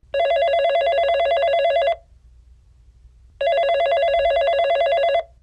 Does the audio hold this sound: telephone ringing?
yes